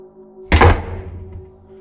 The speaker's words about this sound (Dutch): De deur van de slaapkamer slaat dicht en Sanna draait zich om.